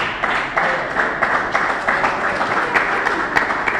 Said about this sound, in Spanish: Vos también me aplaudiste hoy.